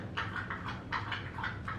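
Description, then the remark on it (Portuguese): A dog drinks, lapping water in a quick, steady rhythm, roughly seven or eight wet slurps in under two seconds, moderately loud, with no talking. “Esse barulho é meu cachorro tomando água, eu esqueci de fechar a porta.”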